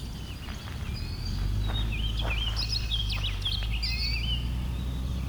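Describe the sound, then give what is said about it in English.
A goldfinch sings in a run of quick, twittering chirps and trills over a steady low rumble of background noise, with no voices. “It is picking up the goldfinch that's here though.”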